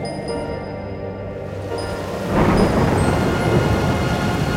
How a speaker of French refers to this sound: La nuit même, celle de Noël, une tempête terrible s'abattit sur la forêt. Chaque arbre, petit à petit, commença à perdre ses feuilles, et certains même s'écroulèrent terrassés par le vent.